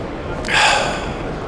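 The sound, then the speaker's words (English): A single sharp gasp for breath after talking at length without breathing, fairly loud, a quick breathy intake that swells and then trails off, with no talking over it. “can't believe I just said all that without breathing.”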